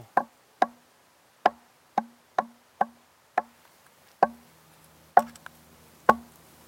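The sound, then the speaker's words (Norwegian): Nine sharp knuckle knocks on a large quartzite ringing stone that people placed on three small stones. Each knock has a brief bright clack and a short low ringing tone, struck at a steady, slightly uneven pace with no talking. “Nå banker jeg bare med knoken, ikke sant?”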